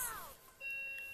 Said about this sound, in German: Leute, das war die Klingel.